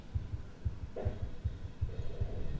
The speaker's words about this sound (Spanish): Escucho un latido en corazón.